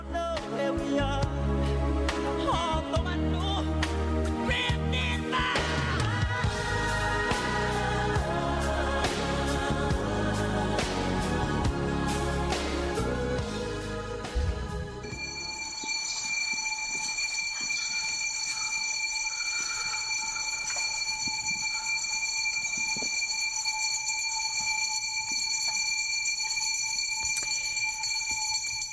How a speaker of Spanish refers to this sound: hay muchos a los que les despierta el camión de la basura, ¿no? Pasa tempranito, tempranito, cinco y media, seis, por ahí, es el reloj despertador.